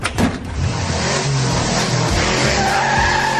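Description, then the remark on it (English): A race car's tires skid and squeal loudly across pavement for a few seconds, the screech steady over a rumbling engine, with no voices. “I said a 10 second car, not a 10 minute car.”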